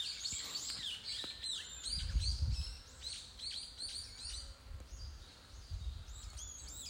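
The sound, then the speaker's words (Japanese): Many birds and other creatures chirp and call at once outdoors in a steady, layered chorus of high, quick calls, with a soft low rumble of wind underneath and no talking. “なんか、めっちゃいろんな声がするんですけど、全然うるさくないですもんね。”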